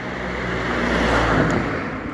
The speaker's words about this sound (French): Euh, alors, évidemment, il y a une voiture.